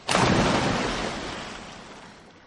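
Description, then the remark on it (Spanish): Lance Armstrong plunges into a natural pool with one sudden, loud splash, followed by a rushing, bubbling wash of water that slowly fades away. No voices are heard. “Frente a la poza, respira y se tira al agua.”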